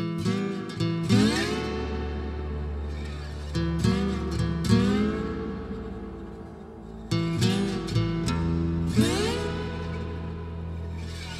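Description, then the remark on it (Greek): A sampled bluesy guitar riff plays on its own, with repeating plucked phrases and bent notes recurring in a steady loop, loud, with no talking over it. “Ένα από αυτά είναι η κιθάρα που ακούγεται στην αρχή, αυτό το ωραίο blues ριφάκι ας πούμε, είναι sample.”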